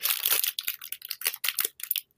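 A plastic bag being handled, crinkling and rustling in a rapid series of bright, crackly bursts with brief gaps, fairly loud and with no voices over it.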